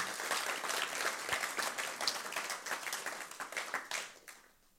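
A church audience breaks into sustained applause, dense overlapping clapping at a steady loud level that tapers off and fades out in the final second.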